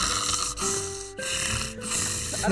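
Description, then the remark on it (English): A person imitates snoring with a few drawn-out, rattling snore sounds in quick succession, fairly loud, with brief breaks between them and no speech. “You lie on the floor in front of the heat and start snoring.”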